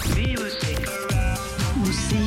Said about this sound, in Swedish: du har en egen vignett. Den låter så här.